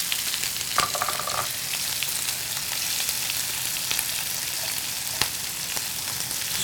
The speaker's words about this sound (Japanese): でまあ全体的にキムチに油が馴染んだなと思ったらもうフライパンの中を大きく菜箸で混ぜてもらって、うん豚肉と合わせていきます豚キムチになったはいでここに、えー、レンコンですねしレンコン入れます